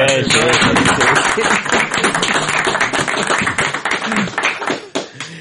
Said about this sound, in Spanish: Yo creo que esta carta merece, merece un aplauso.